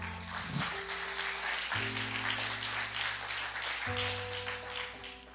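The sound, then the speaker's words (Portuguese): A church audience claps steadily and loudly for several seconds, a dense continuous roar of hands, while sustained keyboard chords hold and change underneath. “Aplauda o seu bem forte.”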